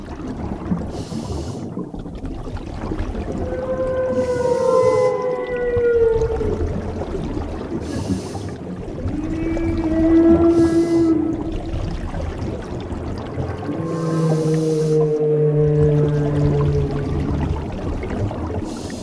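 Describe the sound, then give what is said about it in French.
Humpback whale song recorded underwater off New Caledonia: a series of long, drawn-out moaning and whistling tones, some rising and falling, repeating over a steady low rumble of water, with no voices present. “Marc nous emmène plonger avec les baleines à bosse de Nouvelle-Calédonie”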